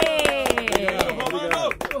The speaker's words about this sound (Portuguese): conclamo todos os colegas a darem uma salva de palmas